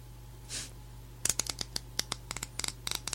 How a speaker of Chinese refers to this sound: 这个是拨梳子的声音，左边的耳朵，右边的耳朵。